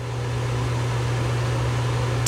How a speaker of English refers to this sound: Let's move on to fan number two. It's it's like an engine fan. Just listen,